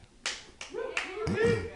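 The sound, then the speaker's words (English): A few scattered audience claps for a performer's stated age, four sharp bursts spaced unevenly, with a voice talking over them after the first couple of claps. “So many, so many claps for my my age.”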